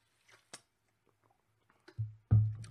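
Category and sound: food or drink, sipping water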